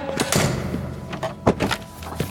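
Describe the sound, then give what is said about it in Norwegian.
A door is handled: a few clunks and rattles of the latch and frame, then a sharper knock near the end as it swings shut. No one speaks. “Jeg skal ta døra for deg.”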